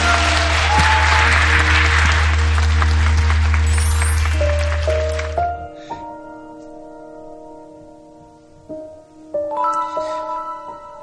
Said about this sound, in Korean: 예, 박수 한번 부탁드릴까요?